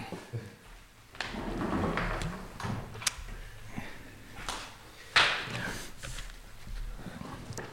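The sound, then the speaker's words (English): A door is shut with a single firm knock after some shuffling and a couple of lighter knocks, over a low rumbling background, with a bit of wind blowing outside. “I'll just bloody close this door.”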